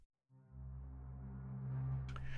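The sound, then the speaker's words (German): A deep, sustained double bass note, C2, played on a keyboard, swells in after a brief silence, holding steady with rich low harmonics for about two seconds before a short bright noise at the end. “Macht hier sogar auch Sinn, weil ich sage, ich möchte die tiefen Töne vom Kontrabass auch mit dem tiefen Ton vom Klavier wirklich hören.”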